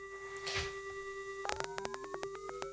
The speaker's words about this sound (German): Man hört das schon, ich verändere die Ratio, also das Verhältnis vom, das Frequenzverhältnis von dem Carrier zum äh, Modulator.